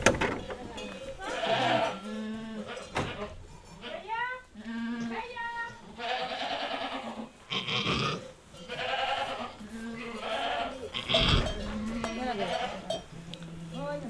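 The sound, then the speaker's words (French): Goats bleat repeatedly, several wavering, quavering calls overlapping one another throughout, with brief pauses and some rustling noise between them. “Je vais aller la voir, cette chèvre.”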